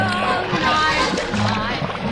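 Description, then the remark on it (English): A bubble machine in a ballroom bubbles and gurgles loudly and continuously, filling the room with bubbles, a busy watery churning that fills the whole moment, with voices talking underneath. “Somebody stop the bubble machine. The whole ballroom is filling with bubbles.”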